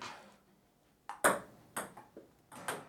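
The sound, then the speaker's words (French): A net sensor sounds a bright, ringing dong, signalling that the ball touched the net during a match, loud against a quiet background, with several shorter sharp taps spaced irregularly around it. No one speaks. “Et voilà, un autre dong, donc filet.”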